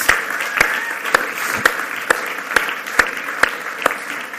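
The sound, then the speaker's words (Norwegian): A church audience applauds a man who has just got married, a dense wash of clapping with a few sharper claps standing out at a regular beat, moderately loud throughout and with no talking. “Han har nemlig gått og gifta seg, og jeg syns vi skal gi han en god applaus.”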